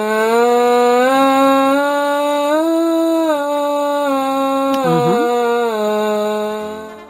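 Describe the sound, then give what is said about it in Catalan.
A buzzy, reedy tone from lips buzzing into a French horn mouthpiece detached from the instrument, held steadily for several seconds with small pitch wobbles and a brief bend near the end, loud, no talking. “De fet, podem agafar només el broquet sense la resta de l'instrument i si, si tirem aire sonaria com una cosa així.”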